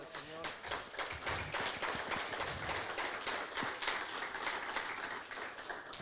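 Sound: audience applauding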